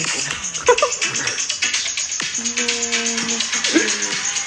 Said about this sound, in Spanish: qué? es la perra ¿Qué pasa?